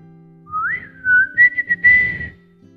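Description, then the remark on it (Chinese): A person whistles a short tune: a rising note that glides down, then several quick repeated notes and a final held tone, clear and fairly loud with no talking. “另外，牙齿也是我们吹口哨时的好帮手呢。”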